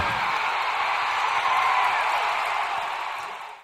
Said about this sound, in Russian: Это звук заполненных трибун.